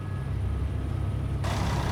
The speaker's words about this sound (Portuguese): A madrugada foi assim: filas e mais filas de ônibus. Era veículo que não acabava mais.